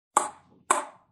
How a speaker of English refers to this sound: is the sound of ping pong.